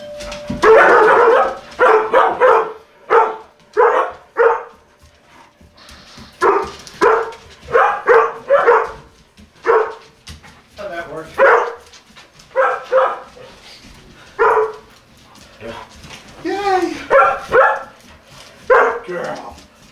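Four collie dogs run and bark repeatedly in quick, overlapping bursts, loud, with short pauses between volleys and an occasional higher yip mixed in.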